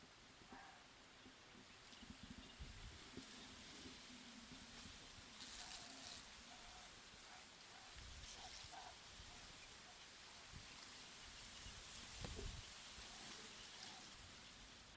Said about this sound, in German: Und weil ich es so schön fand, habe ich für dich ein bisschen was von dem Klang des Sees und des Schilfs aufgenommen. Hör mal rein.